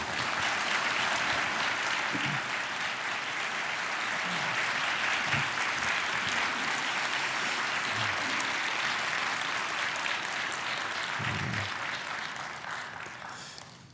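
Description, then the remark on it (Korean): Sustained applause from a church audience welcoming a preacher, a dense wash of many hands clapping steadily at a loud, even level for about twelve seconds before tapering off at the end. “우리 큰 박수로 맞이하겠습니다.”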